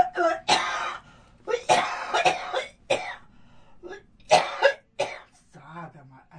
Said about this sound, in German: Huste, wir machen Pause.